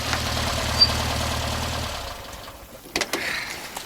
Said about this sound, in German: Als er das Wasser einige Minuten später aufgoss, vernahm er ein leises Brummen. Bob kam zurück. Kurz darauf schaukelte der gelbe Käfer schwerfällig auf den Strand.